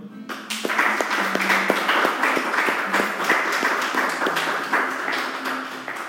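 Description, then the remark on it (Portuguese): A church audience applauds the Lord steadily, a dense wash of many hands clapping at an even, moderately loud level, with sharper individual claps popping out and a low sustained tone beneath. “Se você crer nessa palavra, você pode já aplaudir o Senhor.”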